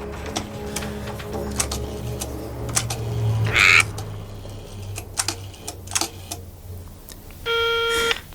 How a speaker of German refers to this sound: Nach langem Grübeln und Überlegen griff der erste Detektiv schließlich nach dem Telefonhörer und wählte die Nummer des Polizeireviers.